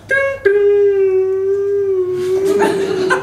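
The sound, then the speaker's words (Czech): A voice imitates a Czech railway station announcement chime: a brief first note, then one long, steady, mid-pitched hum that ends in breathy, laughing noise. “I ten tón z nějakého důvodu tonálně blbě, ale to je jedno.”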